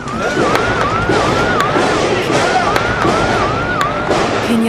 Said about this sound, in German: Gestern stand eine riesige Rauchsäule über der Shopping Mall. Über Stunden waren Schüsse und Explosionen zu hören.